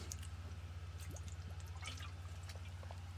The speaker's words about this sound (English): I'm going to pause just and count to three as I take a drink of water.